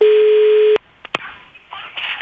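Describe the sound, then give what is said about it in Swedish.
A steady ringing tone of an outgoing phone call sounds for under a second, then cuts off abruptly, followed by a couple of sharp clicks and faint line noise as the call connects. “jag ringer här nu och det, det blir ingen resa.”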